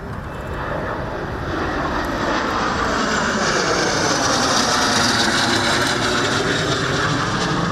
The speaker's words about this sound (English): At the end of it all, the Thunder Tiger aerobatics team tears through the skies, leaving three streaks of colored smoke above the presidential office.